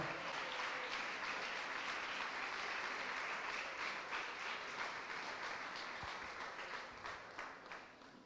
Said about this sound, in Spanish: Dele palmas al Señor, agradecidos con el Señor.